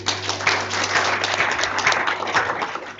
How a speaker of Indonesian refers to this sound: Kita berikan tepuk tangan bagi Tuhan.